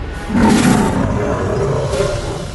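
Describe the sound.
A voice imitates the roar of Goliath, a gargoyle, as at the end of the film: one loud, sustained guttural growl lasting a couple of seconds, rough and throaty, with no other talking.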